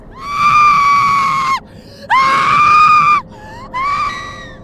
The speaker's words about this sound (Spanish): Un par de segundos más tarde, pasaron y salieron algunos policías, sacando a la señora de la casa en su silla de ruedas y esposada. La señora estaba descontrolada, tenía mucha ira, gritaba.